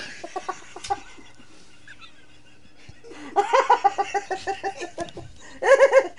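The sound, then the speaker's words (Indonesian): A chicken clucks in quick, choppy bursts: a short run at first, then a longer busy stretch after a pause, ending with a louder flurry of clucks. “Ayam, ayam, ayam.”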